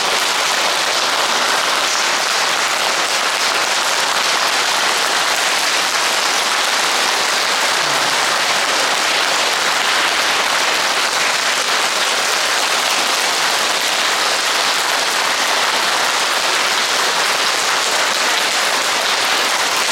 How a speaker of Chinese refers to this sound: 太阳，这个真的要拍拍手，佛讲的太好。